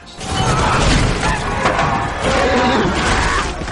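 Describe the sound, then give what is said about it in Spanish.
A loud, dense crash as charging Roman legionaries, running, smash into the front lines of the Gauls: a continuous roar of clattering metal and thudding impacts that swells and stays heavy for several seconds, with a crowd-like din underneath. “Aquel estruendoso choque fulminó las primeras líneas galas que se veían arrolladas por las caligaes romanas.”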